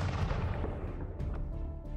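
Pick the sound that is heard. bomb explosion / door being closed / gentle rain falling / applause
bomb explosion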